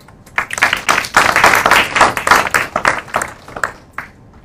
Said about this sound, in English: I'm going to stop now and ask for a big applause for Seven Peaks.